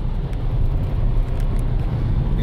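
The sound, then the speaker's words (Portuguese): Steady low rumble of a car's interior while driving to a client appointment, a constant road and engine drone with faint wind hiss, no voices, holding level throughout. “On The Road, para vocês lembrarem, é totalmente feito durante o nosso deslocamento de carro para algum atendimento”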